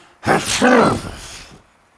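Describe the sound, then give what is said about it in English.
A voice imitates a little giant's big, exaggerated sneeze after a bird flutters into its nostril: a sudden loud, breathy burst with a voiced middle, trailing off into a fading hiss after about a second. “A bird fluttered into its nostril, and the little giant sneezed a burst of feathers.”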